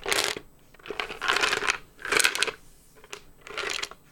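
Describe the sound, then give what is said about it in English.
Small hard objects rattle and clatter in four bright bursts, like dice being shaken and rolled, with brief quiet gaps between each round of clicking. “Oh goodness, we just we just hold up dice the whole way.”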